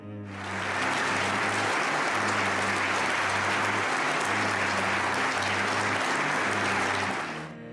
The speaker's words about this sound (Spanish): Y también con una conmovedora ovación en Múnich a su esposa Julia, su compañera de lucha hasta el último momento.